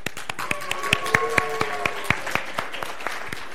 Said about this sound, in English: So let's give a round of applause and welcome our delightful narrators